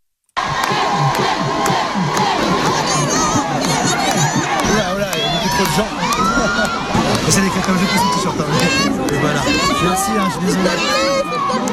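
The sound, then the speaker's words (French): A large crowd cheers and shouts in the streets of Villedieu, France, welcoming home a finalist of TF1's Star Academy, a loud, continuous roar of many overlapping voices with excited whoops and calls rising above the din throughout. “finaliste de l'émission de TF1 La Star Academy, est revenu chez lui hier, fendant une foule impressionnante, rarement vue dans les rues de Villedieu.”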